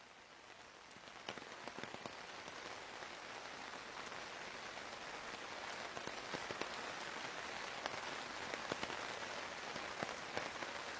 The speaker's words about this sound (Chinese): 你住的城市下雨了，很想问你有没有带伞